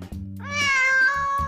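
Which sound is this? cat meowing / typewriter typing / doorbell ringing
cat meowing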